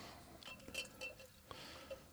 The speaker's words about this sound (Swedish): Så att... Han häller upp glaset lite där mm. så vi ska få i extra mycket.